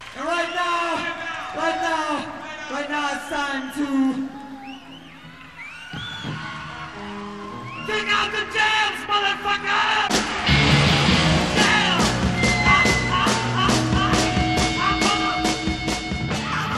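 A man shouts over a cheering, whooping crowd, then a loud, distorted rock band crashes in with pounding drums and driving guitars, the crowd noise continuing underneath.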